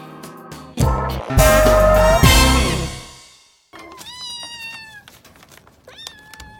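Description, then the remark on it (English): A loud, dense burst of sound cuts off abruptly, then a few high, thin kitten meows follow, rising and falling in pitch with short pauses between them. “Kittens!”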